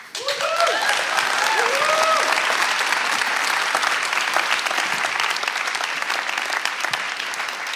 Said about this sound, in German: Das ist dein Applaus.